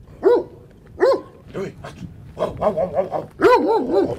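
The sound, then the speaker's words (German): A large dog, three years old and weighing 47 kilograms, is being teased at a 200-megawatt photovoltaic plant near Livera, 20 kilometres northeast of Kosani, and barks repeatedly, with loud separate woofs at first, then a quicker run of excited barks and whimpering yelps, all without any talking. “Der Hund, den Sie hier necken”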